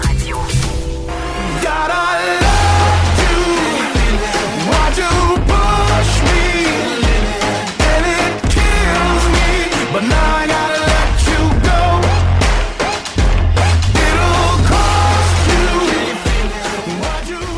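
A loud, full pop song plays throughout, with a steady pulsing beat, deep bass and bright layered synths and melody, no talking over it.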